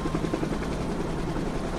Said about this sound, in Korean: 왜 아침부터 헬리콥터가 떠다니지?